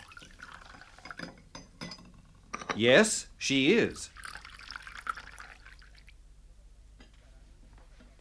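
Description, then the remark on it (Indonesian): Water is poured in two short bursts while making tea, each rising in pitch as the vessel fills, with soft clinks of crockery and a brief spoken reply in the mix. “Is she making tea?”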